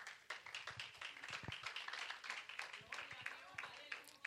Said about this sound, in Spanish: Si ese aplauso es para Dios, déselo fuerte. Porque somos inmerecedores de Él, aleluya.